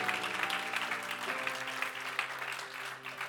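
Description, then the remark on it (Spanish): An audience applauds loudly for Christ during worship, a dense, steady wash of many hands clapping that continues throughout without pause, with sustained keyboard-like tones humming underneath. “Den ese aplauso fuerte a Cristo.”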